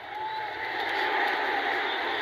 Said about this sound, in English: All the noise you're hearing tonight, none of it is artificial. This is the actual crowd noise. We are not enhancing it.